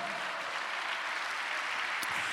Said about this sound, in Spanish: Dele un aplauso al Señor, aleluya.